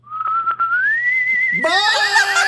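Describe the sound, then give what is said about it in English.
A person whistles a short goodbye, one clear sustained note sliding slowly upward, then breaking into a brighter, fuller warble for the final second. Loud, with no talking. “Can you whistle goodbye to Josh like a like a little goodbye?”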